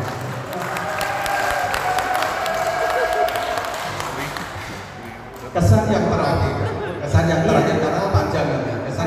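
An audience applauds steadily, a dense wash of many hands clapping that swells louder partway through, with crowd murmur mixed in.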